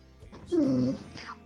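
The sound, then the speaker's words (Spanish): A dog lets out a single short whine in the background, a thin nasal tone lasting about half a second, clear, with faint shuffling afterward. “tengo a mi perro acá de fondo”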